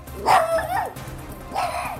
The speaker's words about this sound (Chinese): 迷你泰迪犬不停地叫着，仿佛在威胁鸡飞飞。